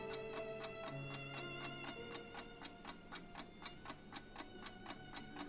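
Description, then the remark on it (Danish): A clock on the corner of a house ticks in a steady, even rhythm, roughly three crisp ticks per second, clear over a faint sustained tonal hum in the background. “Kan du se uret deroppe?”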